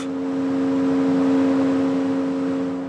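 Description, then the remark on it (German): Turbines of a pumped-storage power plant in northern Portugal, at midday, drawing surplus green electricity from the grid at 220 megawatts to pump water uphill: a loud, steady mechanical drone with a strong low hum and a fainter overtone over a broad rushing whir, unchanging throughout. “Das Kraftwerk nimmt nun Ökostrom aus dem Netz und damit pumpen die Turbinen Wasser den Berg hinauf.”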